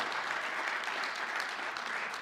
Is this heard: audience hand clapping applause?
yes